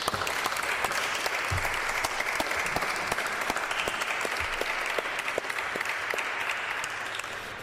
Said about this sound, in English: Give her another hand.